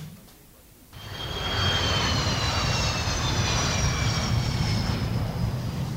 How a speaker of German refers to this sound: Es ist kurz vor Mitternacht. Soeben ist der erste Lufthansa-Jet aus Bremen gelandet, vollgepackt mit Post aus der Hansestadt.